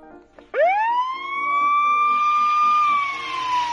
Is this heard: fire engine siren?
yes